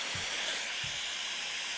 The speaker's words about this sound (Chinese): 没有，我选那个下雨的，我就选大雨天，然后跟瀑布，然后跟雷雨，跟雨窗。就是所有吵的要死全部加在一起